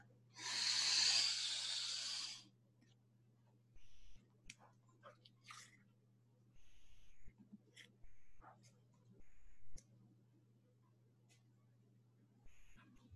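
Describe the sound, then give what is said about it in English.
One deep breath drawn in through the nose, a loud, airy hiss lasting about two seconds, followed by a steady low hum and scattered faint clicks with no talking. “Deep breath. Breathing in through the nose.”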